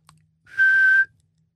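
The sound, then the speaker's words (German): A child's first whistle: one short, breathy note held at a steady pitch for about half a second, with plenty of airy hiss around it, fairly loud. “Püb ist das Pfeifen eines Kindes”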